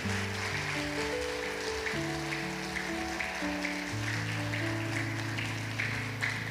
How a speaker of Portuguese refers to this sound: Eu queria que você aplaudisse Jesus por essa palavra.